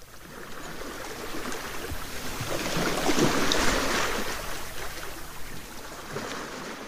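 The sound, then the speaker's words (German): Steady rushing of sea waves with wind blowing at the shore, swelling to a fuller surge midway before easing back, a continuous outdoor wash with no voices. “Wenn du hier so stehst und aufs Meer schaust, fühlst du dich da aufgeräumt und klar.”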